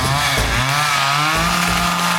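A chainsaw engine revs loudly, its buzzing pitch rising and falling continuously for a couple of seconds with no voices.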